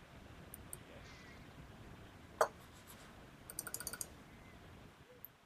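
Sharp clicks of a battery-powered computer mouse fitted with alkaline batteries, fairly quiet: one louder click, then a quick burst of about five rapid, energetic clicks over steady low background hiss. No one talks.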